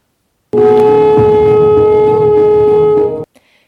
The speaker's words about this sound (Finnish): Ja miten, mistä, siinähän on tuntiaikaa valmistautuu, eli sitten se simpukan, konchin ääni kuuluu vaimeesti, joka kuulostaa tältä.